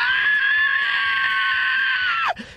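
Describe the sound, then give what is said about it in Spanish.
A woman's loud, sustained high-pitched scream, voiced as part of a joke, holding steady for about two seconds before sliding sharply down and cutting off, with no other talk. “Y se fueron ahí a encontrar su carro. Y grita”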